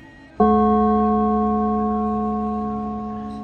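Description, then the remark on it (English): A single gong is struck with a sharp onset, then rings out in a long, steady metallic hum that slowly fades over several seconds. No voices are heard. “And then there's a gong.”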